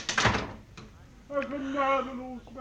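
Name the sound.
doors being closed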